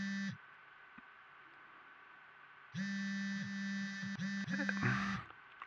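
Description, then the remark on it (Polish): A phone vibrating with a burst of incoming text messages buzzes loudly: a short vibration, a pause of a few seconds, then a longer stuttering buzz that breaks up near the end, with no one talking. “Jezu, jak coś mi wibruje.”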